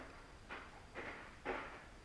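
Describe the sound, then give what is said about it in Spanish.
Ice clatters in three short, evenly spaced rattling bursts, each a little louder than the last, fairly soft against a quiet background with no one talking. “pensé que era la puerta, pero no era el hielo”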